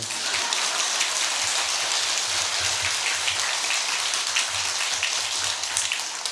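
An audience applauds heartily after the speaker asks them to clap enthusiastically, a dense, steady roar of many hands clapping that holds at an even, loud level for several seconds with no voices over it.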